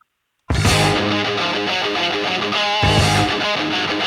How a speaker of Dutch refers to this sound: Ik ga even je nummer laten horen. Kijk of je hem herkent.